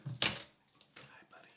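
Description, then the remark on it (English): A metal dog collar jingles as it is taken off: a bright, loud clatter of tags and links at first, then a few softer, scattered jangles trailing away. “Here comes the dog, and I have to take his collar off so it doesn't jingle jangle.”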